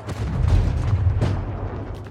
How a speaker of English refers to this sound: The streets are littered with the debris of war. The sound of gunfire echoes through the air.